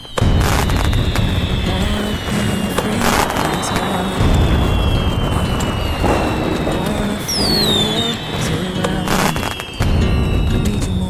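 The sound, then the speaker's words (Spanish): Fallas festival firecrackers explode in a loud, dense barrage of sharp bangs and crackles, with several heavier booms punching through and shrill whistling streaks rising above the din. “¿Y cuál es el mejor lugar de la ciudad donde has disparado?”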